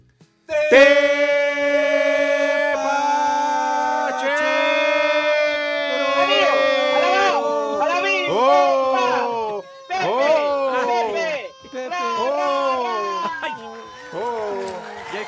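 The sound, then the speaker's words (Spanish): A loud ambulance siren holds a steady wail for several seconds, then wavers and sags, breaking into a series of falling, groaning swoops as it winds down. “Cañaba la ambulancia, Chihuahua.”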